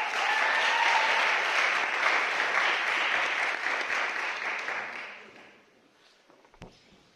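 An audience claps steadily for about five seconds, a dense wash of many hands, then the applause fades out with a few scattered last claps.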